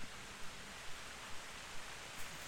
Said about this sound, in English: Oh, yep. It was calling the rain. Here's the rain.